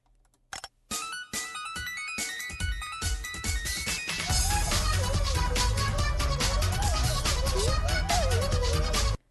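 An upbeat chiptune internet meme song from a 2011 YouTube animation of a flying cat plays on its own, bright bleepy melody lines bouncing rapidly over a fast rhythm, with a heavier pulsing bass beat joining about halfway through and continuing loudly to the end.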